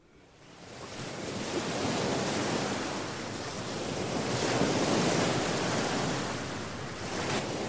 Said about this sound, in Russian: Море.